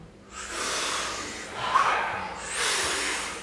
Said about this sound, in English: we're going to do 30 to 40 powerful breaths uh-huh. in and out through the mouth